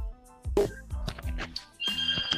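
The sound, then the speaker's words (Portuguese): A home telephone rings in the speaker's house in short electronic bursts, with a steady, bright warbling tone near the end, moderately loud, with some low background noise. “O telefone aqui de casa está tocando.”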